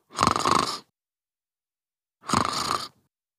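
Two soft, breathy snores about two seconds apart, each a drawn-out rasping inhale, with silence between them, from a small child sleeping in a bedroom.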